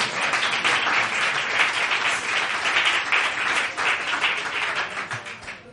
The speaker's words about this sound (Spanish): pues vamos a recibir nuevamente con un fuerte aplauso